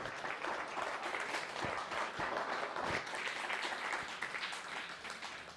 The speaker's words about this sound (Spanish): Baruch Hashem, pues ahora sí dale un fuerte aplauso al bendito ser.